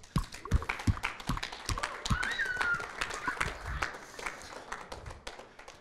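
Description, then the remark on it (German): Audience applause at a Connect-Kirche Christmas service: a crowd claps steadily for several seconds for the church's Santa Claus bringing candy canes, a dense, crackling patter of hand claps, fairly soft overall, with a brief high whistle-like tone rising midway through. “Gib ihm einen großen Applaus.”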